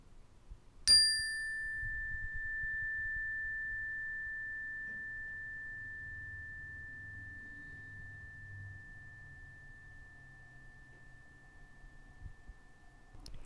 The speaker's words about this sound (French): Et tout simplement, je vais sonner la cloche.